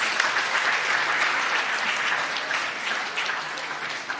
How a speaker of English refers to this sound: Thank you. Does everyone want to give the boys a clap? Thanks, boys.